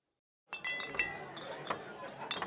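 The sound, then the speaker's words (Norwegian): Glass beer bottles clink and rattle against each other as someone rummages through a crate for the next beer, a busy run of bright knocks and chimes after a brief silence. “rota i kassen”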